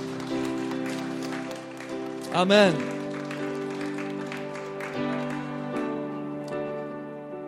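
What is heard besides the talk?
audience applauding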